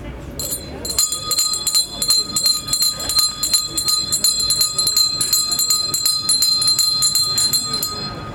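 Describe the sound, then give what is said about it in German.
Clock bells strike noon in a steady run of loud, ringing peals, each metallic stroke overlapping the bright hum of the last, continuing without pause for several seconds. “Hört ihr Leut und lasst euch sagen, es hat nun zwölf Uhr geschlagen.”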